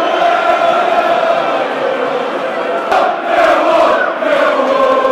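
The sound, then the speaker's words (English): A football stadium crowd at The Den cheers loudly after Lee Gregory's goal puts Millwall 2-1 ahead, a dense, sustained roar that fills the whole clip, swelling with fresh bursts of shouting about halfway through. “you got the crowd into play, mate.”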